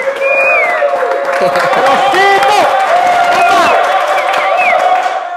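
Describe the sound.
A crowd cheers and claps steadily for about five seconds, a loud dense wash of noise with high whoops and shouting voices rising and falling over it.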